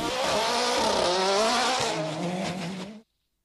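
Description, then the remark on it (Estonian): A fast car roars by at high speed, its engine note loud and rising then shifting in pitch for about three seconds before cutting off abruptly, with no voices. “ja peale seda ta näitas veel väga hästi, kui kiire see auto on.”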